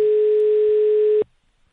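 A phone's outgoing ringing tone: one steady, clear electronic beep held for just over a second, then it cuts off into near silence. No one speaks.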